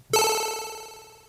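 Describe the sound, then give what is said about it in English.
A single bright, buzzy Commodore 64–style synth stab made with the Massive software synthesizer for a track intro hits sharply and rings out with a rich, harmonic-laden chiptune tone, slowly decaying over about a second, heard alone. “And so for that, I've used Massive, and the sound is a C64, Commodore 64 stab.”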